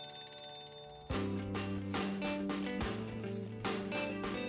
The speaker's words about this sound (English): We will practice fire drills. When the fire alarm rings, everyone needs to line up quickly and quietly and follow your teacher outside.